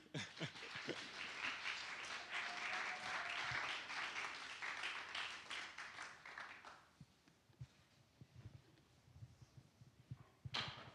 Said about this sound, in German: Danke, ihr vier. Ein Applaus für die.